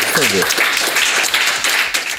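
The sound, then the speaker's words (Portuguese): Steady applause sound effect played at the end: a dense, loud wash of many hands clapping that holds for a couple of seconds, with a brief voice heard underneath at the start. “Alguém põe um barulho de, de aplauso aí no final, cara.”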